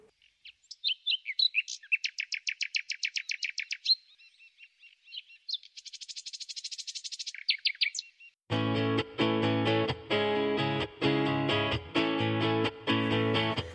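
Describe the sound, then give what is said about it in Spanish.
A small bird sings a run of rapid, high trills and buzzy phrases, clear with no talking. After about eight seconds, loud rhythmic music cuts in. “Y ahora para terminar vamos a escuchar el canto.”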